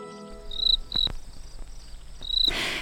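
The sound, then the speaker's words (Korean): Crickets chirp in short, high, bright trills, three bursts spaced across a couple of seconds over a low steady background hum, clear with no one talking. “어머, 이 귀뚜람 소리가 계속 나나봐요.”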